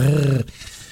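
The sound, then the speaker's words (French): A voice imitates the sound of a locust with one short, low, buzzing growl lasting under half a second. It is loud, then trails off into near silence. “Euh, imagine que c'est le bruit de la sauterelle.”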